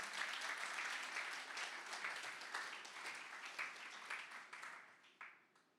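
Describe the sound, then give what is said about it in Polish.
An audience applauds steadily for a group of men, a dense wash of many hands clapping that holds for several seconds before thinning out and tapering off toward the end. “Wielkie oklaski dla nich.”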